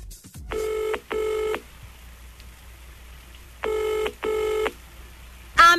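A telephone ringback tone, as heard by the caller, sounds in two double bursts, each pair of buzzy purrs followed by a pause, clear and isolated, before a different sound cuts in at the very end.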